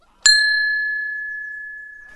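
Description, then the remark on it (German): A doorbell at a wildlife station rings with one bright ding that lingers and slowly fades over about two seconds. It is clear, with no voices or other sounds around it. “Und jetzt klingeln wir mal.”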